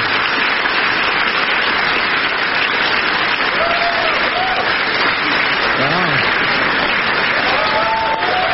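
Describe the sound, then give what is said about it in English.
Sustained, loud applause from a large crowd at a gathering in the East Room fills the whole stretch, a dense steady patter of many hands clapping, with faint murmured voices and a few whistles poking through. “Okay, there's a lot of people in the crowd.”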